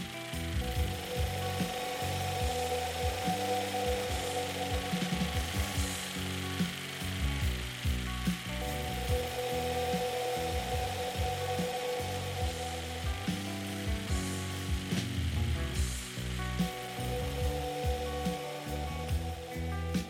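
A dense synthesized soundscape resembling a wind chime, of tinkling, clattering chime-like tones over a low rumbling bed, moving across the full stereo width through automation, sustained at an even level throughout with no voices.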